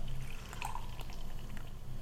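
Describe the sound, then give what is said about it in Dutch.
Very dark, chocolate-dark beer pours steadily into a mug, a continuous liquid rush with a few small splashy drips, leaving a foam head on top, and no one talking. “Ja, bij het inschenken kunnen we al een beetje iets zien.”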